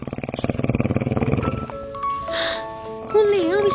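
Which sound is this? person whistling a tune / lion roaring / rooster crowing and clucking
lion roaring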